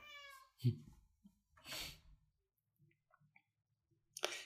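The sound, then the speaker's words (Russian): A cat lets out a loud, drawn-out yowl, followed by a second rising cry a moment later, with faint clicks and rustling in the quiet between and a sharp noise at the end. “Кошка начала орать, мне сейчас надо ее в другую комнату выпустить”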